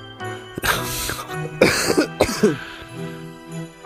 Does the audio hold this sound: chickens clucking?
no